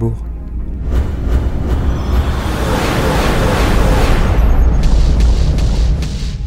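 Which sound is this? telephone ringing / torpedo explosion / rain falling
torpedo explosion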